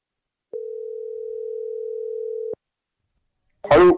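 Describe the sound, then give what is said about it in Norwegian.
A single steady telephone ringing tone hums for about two seconds while a call is being placed, then stops; after a short silence a brief burst of a voice or handset noise follows near the end. “må bare ringe og høre.”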